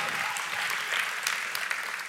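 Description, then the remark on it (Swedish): A crowd applauding steadily, a dense, bright wash of many hands clapping at once with occasional sharper claps standing out, holding an even, fairly loud level throughout. “Ge det här gänget en grym applåd.”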